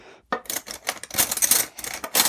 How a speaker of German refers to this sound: Warte mal, ich hole schon mal Besteck raus. Genau, zwei kleine Löffelchen brauchen wir.